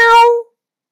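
A single short meow from a human voice imitating a cat: bright, tonal and mid-pitched, sliding slightly downward and fading out in under half a second, followed by silence.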